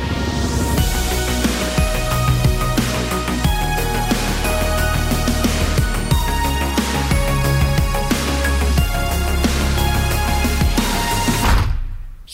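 A full-band song recording plays loudly and steadily, with a driving drum beat under bright guitars and keys, then stops abruptly at the end.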